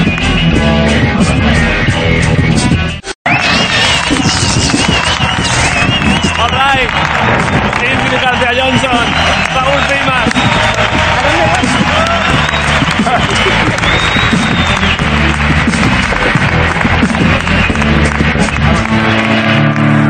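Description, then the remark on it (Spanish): An audience bursts into loud, sustained applause with cheering for Diego Suárez, Andrés Rublev, a comedian and an actress before the first match, a dense wash of clapping that keeps going after a split-second break near the start, with voices shouting faintly within it. “Eh, vale, pues un aplauso para Diego Suárez, Andrés Rublev, un cómico y una actriz.”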